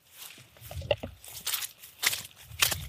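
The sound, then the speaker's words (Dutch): Steady footsteps crunch along outdoors in a food forest in the countryside on a dry, cold day, as people walk toward a man to meet him; several paces at an even walking rhythm, moderately loud, with faint rustling in between and no talking. “En we lopen nu op hem af om hem te ontmoeten.”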